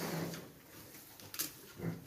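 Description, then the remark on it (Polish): Two low, gruff pig grunts about a second and a half apart, with a brief snorting rustle between them; fairly quiet, with no talking. “Nie będę ze świnią jadła.”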